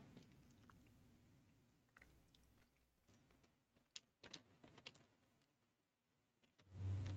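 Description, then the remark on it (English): Chewing of Nerds jelly beans with crunchy shells and chewy centers: irregular crisp crackles and clicks over a soft low rumble, ending in a louder muffled burst near the mic. No talking. “Oh, crunchy shell. Mm-hmm. Yeah. Chewy like a like a jelly belly.”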